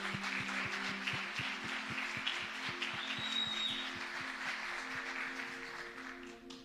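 An audience applauds steadily for several seconds, a dense, even wash of clapping that fades slightly at the end, with a low, rhythmic pulsing tone running underneath.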